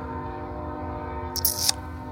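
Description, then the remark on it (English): A train rumbles past with a steady low drone and humming tones, and a brief high metallic screech of wheels cuts in near the end. No one speaks. “There's a train.”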